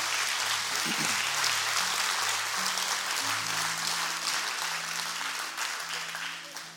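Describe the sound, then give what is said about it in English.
An audience claps steadily for several seconds for the word of God during a sermon, a dense, loud wash of applause over low sustained musical notes, tapering slightly toward the end. “Would you clap for the word today?”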